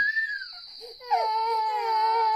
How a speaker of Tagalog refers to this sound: Maya-maya ay nagising na ang mga bata at nagsimula ng mangiyakan.